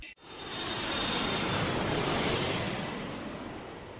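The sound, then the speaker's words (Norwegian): A loud jet engine roar, used as a jingle, swells quickly and holds as a broad, steady rush with a faint high whine, like an airliner taking off, with no voices. “ja, eh, vi kommer nok til å få eh, mye brutt for eh, denne jinglen framover, får jeg håpe.”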